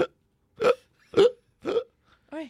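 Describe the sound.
A voice imitates retching: three loud, strained gagging heaves in a steady rhythm, then a shorter, higher vocal sound at the end. Clear, with no other talk.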